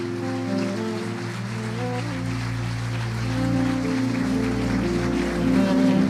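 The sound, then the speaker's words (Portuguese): A church audience claps steadily and densely for several seconds, applauding for a young man. The applause swells slightly toward the end while sustained keyboard chords play underneath. “Vamos aplaudir ao Senhor para esse jovem.”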